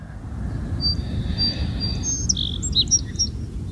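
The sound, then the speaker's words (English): Birds chirp and trill outdoors in short, high bursts over a steady low rumble of wind or other noise, with several calls overlapping toward the end. No one speaks. “Just listening to the birds.”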